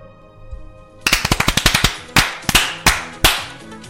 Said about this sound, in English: And with that, they all started to clap.